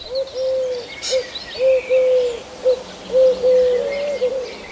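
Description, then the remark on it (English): A collared dove coos in a repeated three-note phrase, soft hollow notes with a steady rhythm, while other birds chirp faintly in the background. “the ones that look um, very sort of pinky, fawny coloured with a, um, a black band across, and those are collared doves. And they make a sound which has got three notes, so it's do do do do do do.”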